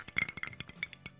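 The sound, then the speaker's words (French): A large ice cube clinks against a glass several times in quick, irregular succession, bright, with sharp high ringing taps and no talking. “Oh, toi, on l'entend mieux vu que c'est une grosse glace.”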